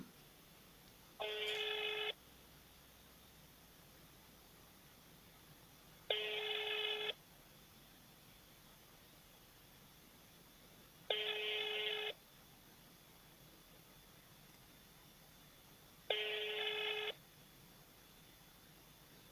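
A telephone ringing tone sounds four times, each buzzy burst lasting about a second and repeating at steady five-second intervals over quiet background, with no voices, as a call is placed to the public reception office of deputy Shibalin in Biysk and goes unanswered.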